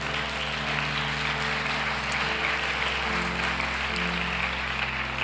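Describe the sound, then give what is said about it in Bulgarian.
A church audience claps steadily in praise of God, a dense, continuous wash of hand claps, with low sustained musical tones running underneath throughout. “О, ако ръкопляскаш, ръкопляскай, като че ръкопляскаш за жив Бог.”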